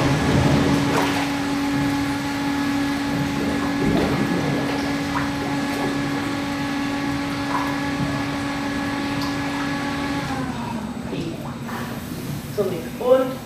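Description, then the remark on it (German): A pump hums steadily while water is pumped into a treadmill tank, a constant droning motor tone that cuts off after about ten seconds, leaving sloshing water and a few splashes. “Kriegst mal ein Stück Wasser rein, Schätze?”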